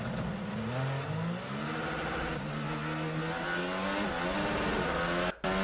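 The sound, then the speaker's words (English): Many race cars accelerate together at a race start, engines rising and shifting in overlapping whining pitches, a dense, loud roar of many motors with no voices, ending abruptly. “There's a lot of cars here.”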